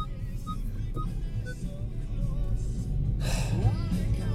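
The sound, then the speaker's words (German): Faint, evenly spaced electronic beeps from a car in a narrow street sound over a steady low traffic rumble outdoors, followed by a louder rushing burst as a vehicle seems to pass. “Ganze Aufnahme im Arsch weil Auto wieder piepen muss, weil Straße eng.”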